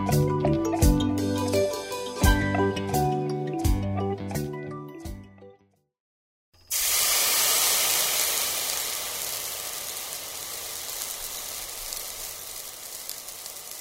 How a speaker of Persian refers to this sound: خب اینم از آتیشمون